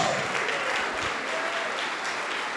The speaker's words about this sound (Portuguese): Todos que estão sem igreja, venham aqui para frente e vamos aplaudir mais ao nome de Jesus.